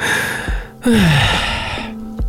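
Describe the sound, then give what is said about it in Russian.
A voice imitates constantly tired, heavy breathing: a couple of loud, breathy exhales, one sliding down into a weary groan, followed by another ragged breath. “Мне кажется, что если бы на меня повесили такую штуку, я бы сто процентов научился изображать постоянно уставшее дыхание.”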